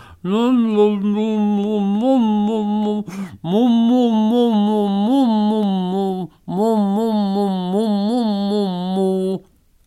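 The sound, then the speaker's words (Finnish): A voice sings a tune in sustained, wavering meows, imitating a cat, in three long phrases separated by brief pauses, loud. “mutta kun se ei osaa puhua, se kuulostaa tällaiselta”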